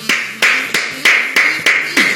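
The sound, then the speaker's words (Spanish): A single person claps their hands seven times at a steady, fairly quick pace, each clap sharp and loud, with no voices, applauding the first man to win the National Empanada Championship. “El único que aplaudí.”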